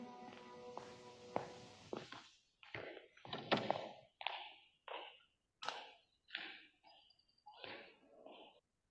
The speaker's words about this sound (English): All right, so so in this scene, Klebb opens this door, and I love the squeak in this door. It's like dun dun dun. it's a bad omen, right?